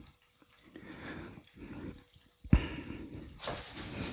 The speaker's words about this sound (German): So. Kartoffeln sind im Öl. Ich weiß nicht, ob es jetzt blubbern und zischen hört.